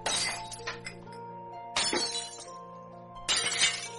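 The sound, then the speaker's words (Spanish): Crystal glasses fall to a kitchen floor and shatter in three separate crashes, each a bright burst followed by ringing, tinkling shards that slowly fade. No voices are heard. “Ni bien me estaba acomodando cuando escuché que se cayeron unos vasos de cristal.”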